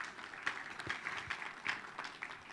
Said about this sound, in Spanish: Un, un aplauso